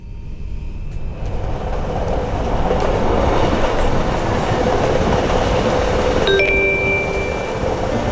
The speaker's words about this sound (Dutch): Het volgende station is Heerlen tevens het eindpunt van deze trein. Denkt u bij het verlaten van de trein aan uw bagage. Station Heerlen.